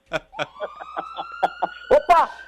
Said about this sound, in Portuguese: Olha a ambulância, Brasil! Olha a ambulância! Eita! É ambulância? Parece ambulância! É a mistura de ambulância com camburão! Ambulância!